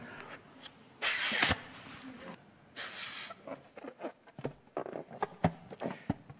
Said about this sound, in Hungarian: Mekkora egy lufi? Hát ha amekkorára fújjuk, igaz?